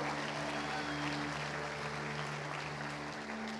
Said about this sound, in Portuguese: Se você crê, dê uma salva de palmas a Jesus.